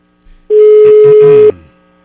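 A telephone ringing tone of an outgoing call from a furniture store to a customer: one loud, steady mid-pitched beep lasting about a second, with a faint murmur of other sound beneath it, then quiet.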